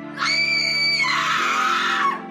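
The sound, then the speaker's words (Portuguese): A single drawn-out scream, coming from the entrance of a town, lasting about two seconds with a high, strained pitch that shifts partway through, over a low steady hum. “Naquele momento, vocês estavam indo até o moinho, vocês ouvem mais um grito.”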